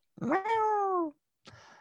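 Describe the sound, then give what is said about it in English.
A person does a loud, drawn-out meow imitation with a rising then gently falling pitch, followed after a short pause by a softer, breathy sound. No other talk is present. “Then we got the, the cat.”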